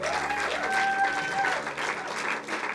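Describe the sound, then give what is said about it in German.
Steady audience applause in a church, a dense wash of many hands clapping at moderate loudness, with a brief whistle-like tone rising above the clapping for a moment. “Nachher, äh, nachher wird der Applaus noch mal ungefähr zweimal so stark sein.”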